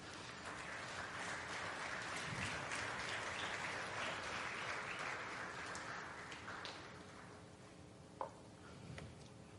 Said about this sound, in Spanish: Démosle palmas al Rey, pues.